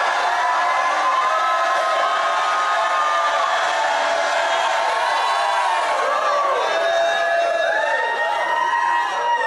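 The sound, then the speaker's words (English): A large audience shouts and cheers together in a sustained, loud roar, with overlapping voices, whoops and rising cries continuing steadily throughout. “I'm going to stop till I hear a shout coming out of this region, the likes of which we've never heard on planet Earth before.”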